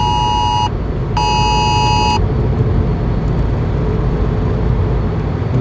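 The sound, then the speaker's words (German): A phone emergency warning alert, a hazard information warning message received while driving, sounds twice as a loud, harsh steady tone with strong harmonics, each burst lasting under a second, over a constant rumble of road and engine noise; no one speaks. “irgendeine Gefahreninformation hier.”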